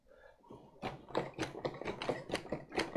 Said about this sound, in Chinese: 滋啦啦，滋啦啦，上头突然传来了很大的动静声，像是在挪床。